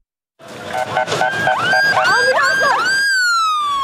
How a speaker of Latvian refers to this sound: Zemestrīču visvairāk nopostītajās pilsētās Turcijā un Sīrijā neatliekamās medicīniskās palīdzības auto sirēnu skaņa šajās dienās nozīmē to, ka iespējams zem kāda sagrauta nama sienām ir atrasts izdzīvojušais.